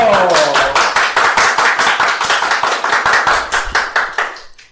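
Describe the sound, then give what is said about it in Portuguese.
A round of loud, steady applause from a group honoring a teacher, dense rapid claps sustained for several seconds before tapering off at the end, with no one speaking. “Então, agora eu quero que vocês aplaudam de casa, porque nós vamos aplaudir daqui, porque ela merece”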